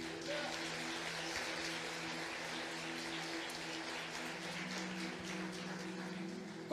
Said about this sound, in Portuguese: Você pode aplaudir a Ele por isso?